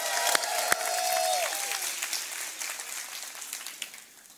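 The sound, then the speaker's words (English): A large crowd claps and cheers loudly, making noise for Jesus, with a high whoop or whistle near the start, the dense applause gradually thinning over a few seconds. “Can you make some noise for Jesus one more time?”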